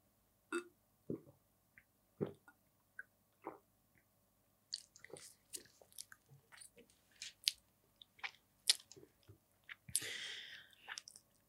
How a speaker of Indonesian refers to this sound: Saya minum dulu.